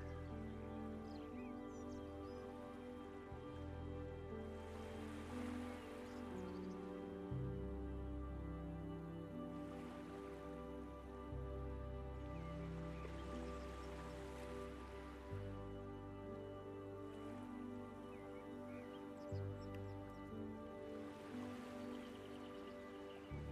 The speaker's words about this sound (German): Höre die Wellen des Sees, die kommen und gehen. Das sanfte Plätschern am Ufer. Höre den Geräuschen einfach nur zu.